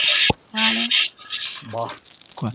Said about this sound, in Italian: Secondo me, io ho sentito prima le campanelline.